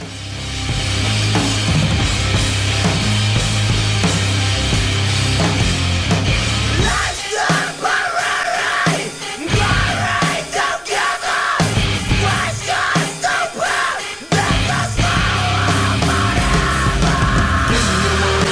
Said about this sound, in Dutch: Eh, eh, ja, ik zet eerst even het liedje aan.